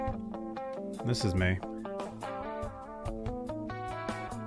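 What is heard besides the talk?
background music playing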